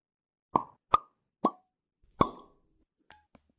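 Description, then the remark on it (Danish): Four sharp, hollow pops like corks leaving bottles, spaced unevenly, followed by two much fainter pops near the end; no one speaks. “Det lød som nogle propper, der sprang.”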